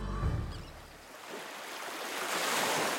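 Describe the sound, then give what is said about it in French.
Harbour water laps and washes steadily around an Italian cargo ship anchored in the roadstead of the port of Marseille, a soft continuous surf hiss with a low rumble at first, swelling slightly toward the end, with no voices. “Il attend sagement au mouillage en rade du port de Marseille.”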